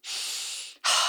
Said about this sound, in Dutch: Ik voel ook, als ik in die beknelling zit, dan hou ik mijn adem hoog en vast. En wanneer ik dan weer bewust ga doorademen, letterlijk, zo helemaal naar beneden, zo